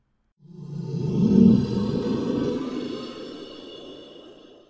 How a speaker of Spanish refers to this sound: Primero escuché el gruñido provenir no desde atrás, sino desde enfrente de la lámpara.